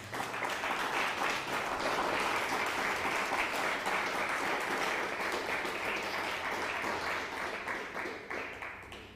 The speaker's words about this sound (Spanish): ¿Qué les parece? Den un fuerte aplauso al Eterno.